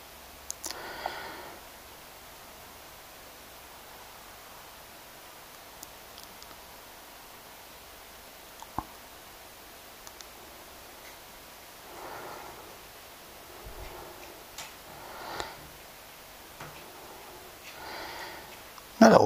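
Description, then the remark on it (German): A quiet living room tone with a steady soft hiss, broken now and then by faint rustles, sniffs and small clicks, plus a sharper tap right at the end. “Jetzt könnt ihr hier mal die Geräusche einfangen. Ja, jetzt hört ihr mal keinen Kühlschrank, sondern die Wohnzimmeratmosphäre.”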